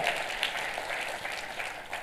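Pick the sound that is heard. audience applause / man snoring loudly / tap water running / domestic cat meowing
audience applause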